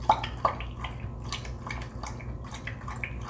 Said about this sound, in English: This is my parents' and by proxy my dog Hops. He's a Shetland sheepdog, and one of my absolute favorite sounds is him drinking water out of his water bowl. When he does, he has a particular pattern, like a waltz.